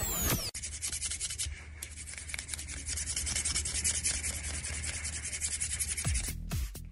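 A steady, harsh scrubbing sound, like a broom scraping back and forth across a floor, fills several seconds with loud, rough, hissing friction. It stops abruptly near the end. No one speaks.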